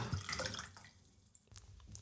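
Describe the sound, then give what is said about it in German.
Water pours briefly into a glass, a bright splashing trickle that tapers off within a second, followed by a few faint drips and quiet room noise. “Ähm, so, möchtest du noch ein bisschen Wasser?”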